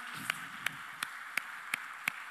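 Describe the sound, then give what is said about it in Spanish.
Six sharp, evenly spaced claps ring out at a steady beat at a church service, applause for a family of church members who gave testimony, each crisp and bright against a faint low background hum, with no crowd roar and no talking. “Le damos un aplauso, por favor, a los hermanos.”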